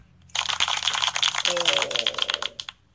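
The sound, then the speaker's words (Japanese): A short applause sound effect: a dense, crackly patter of clapping that runs for a little over two seconds at a fairly low level, with a brief voiced sound partway through. “拍手音ちっちゃなかったよ。”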